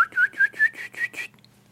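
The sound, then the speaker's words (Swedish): A person whistles an imitation of a pygmy owl's autumn call: a run of about six short, clear, rising whistled notes in quick, even succession, fading slightly toward the end, heard alone. “Får jag vissla sparvugla? Höstläte?”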